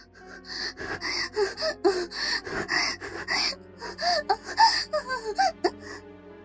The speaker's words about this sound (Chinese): 房间里只剩下了喘息声。